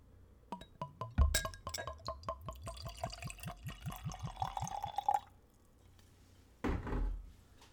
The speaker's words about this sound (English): And for every liquor or liqueur that I review, I taste them neat, which is room temperature, just straight out of the bottle. So let's give it a pour.